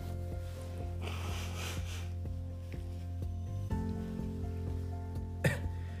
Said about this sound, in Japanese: ちょっと待ってちょっと鼻かんでいい